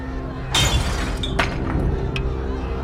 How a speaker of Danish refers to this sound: Derfor var der så nogen, der smed sten ind gennem ruderne. Stenene knuser ruderne og lander inde hos Hubert Hansens kæreste eje, nemlig børnene, som sover i deres senge.